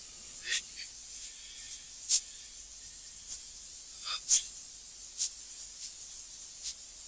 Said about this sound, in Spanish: Static arrives.